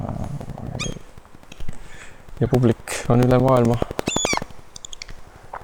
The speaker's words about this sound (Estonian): Need kajakad äh, tõesti nagu piiravad meid. just mõtlen, kas nad tahavad pikeerida. ma ei teagi, ma ei saa aru praegu nende tähelepanu oleme saanud küll.